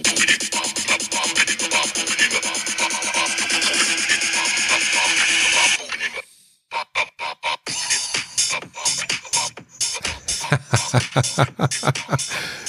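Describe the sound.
A recorded, not yet released song plays back through a small, tinny phone speaker: a dense, steady rhythmic passage, a brief drop-out, then choppier, punchy beat-driven bursts.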